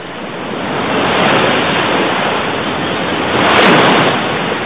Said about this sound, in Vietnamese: lúc này cả bọn đã tới sát bờ biển tiếng sóng vỗ vào bờ đá ầm ào bất tuyệt